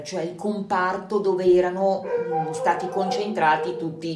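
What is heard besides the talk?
dog barking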